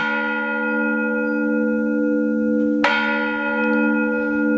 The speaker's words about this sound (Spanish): Yo vivía de pequeña en una plaza en Córdoba frente a una iglesia y el sonido de las campanas era parte de mi día a día, algo de lo que solo me di cuenta cuando dejé de vivir allí. Sobre todo recuerdo el toque de campanas en las tardes de verano